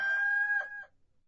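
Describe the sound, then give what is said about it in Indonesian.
A single rooster crows once, loud, a bright strained call that holds steady before breaking off and falling silent. No one speaks. “Maka Petrus menyangkalnya pula dan ketika itu berkokoklah ayam.”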